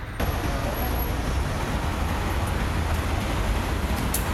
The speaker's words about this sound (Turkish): Gece yarısı akaryakıt zammı devreye girmeden sürücüler yine akaryakıt istasyonlarında yoğunluğa neden oldu. İşte araçlar akaryakıt istasyonlarında sürücüler de zam devreye girmeden yakıt alma telaşında.